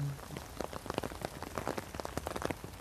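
Steady rain falling on a hard surface, with dense irregular patter and scattered louder drops, continuous throughout and moderately loud, with no voices.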